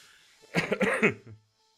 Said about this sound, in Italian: Scusate ragazzi, c'è ancora un po' di tosse che sono stato male due mesi fa. Però c'è ancora un po' di tosse.